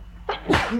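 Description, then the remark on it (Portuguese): A single sharp sneeze, fairly loud, with a quick breathy intake followed by an explosive burst that trails off into a short exhale. “Pode ser, Santinho.”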